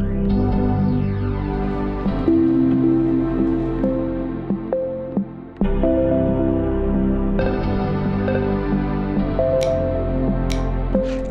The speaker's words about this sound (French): 45 ans de sons de démarrage et autres bruits mythiques issus des différentes générations de Macintosh, transformés en notes et montés sur GarageBand bien sûr.